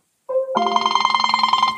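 A phone ringtone from an incoming call during a recording starts with a short electronic tone, then rings with a rapid, steady trill of bright, harmonic beeps. It sounds loud, with no voices.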